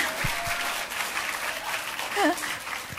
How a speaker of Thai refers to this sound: ก็ก็เราตบมือให้นักแสดงเราหน่อยนะคะ